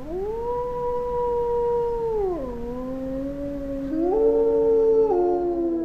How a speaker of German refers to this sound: Manchmal ist das Geheul von Wölfen zu hören, von scheuen Tieren, die man tagsüber in freier Wildbahn nur äußerst selten zu Gesicht bekommt.